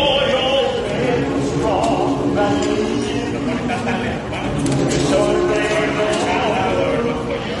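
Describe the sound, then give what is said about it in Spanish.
A crowd of delayed passengers at an airport sings together loudly, their voices blending into a steady, continuous chorus with some background bustle. “que de repente la gente se levante y empieza a cantar esto”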